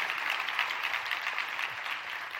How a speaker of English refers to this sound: Welcome, Portico Online. Hey, in the room, give a big hand so they can hear you clapping for everybody that's joining us online today.